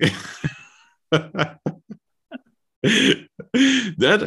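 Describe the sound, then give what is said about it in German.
A raspy, phlegmy smoker's cough: several rough, throaty hacks and throat-clearing bursts in uneven clusters with short pauses between, fairly loud, with no talking. “jetzt haben wir immer so dieses, dieses Raucherhusten.”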